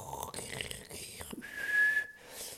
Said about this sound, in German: Da hat man sich in dieses Internet eingewählt.